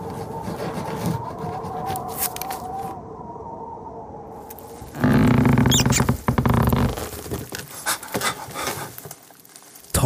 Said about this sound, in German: Es raschelt im Dunkeln. Zwei glühende Augen starren ihn an. Dann huscht eine Ratte über seine Beine.